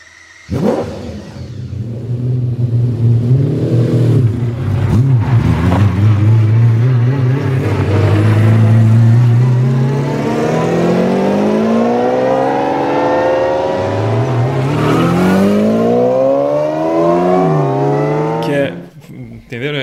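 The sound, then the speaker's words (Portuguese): A McLaren F1 supercar engine revs hard, its pitch climbing steadily through long accelerating pulls, with a sharp drop and a fresh rising surge partway through. “Mas a, a gíria, o nome do carro em questão é McLaren F1, né, gente?”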